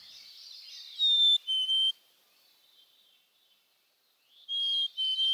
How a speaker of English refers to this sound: What we're listening to here is a chickadee from the Hudson River Valley. Um, this is an area with high levels of PCBs, and the songs of birds that grow up in this area are less consistent and therefore indicate lower quality